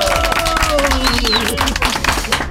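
A crowd applauds loudly and steadily for a couple of seconds, dense clapping mixed with cheering and a few sliding whistles or whoops over the noise.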